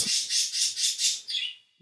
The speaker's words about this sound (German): Vögel sind gerade ein bisschen am tweaken.